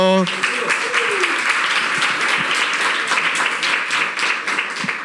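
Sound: audience applause and cheering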